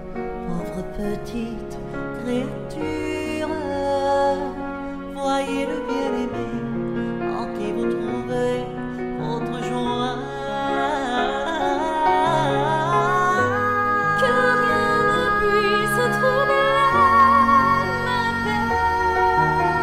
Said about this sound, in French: après ce chant qui met en musique euh, cette magnifique prière de Sainte Élisabeth de la Trinité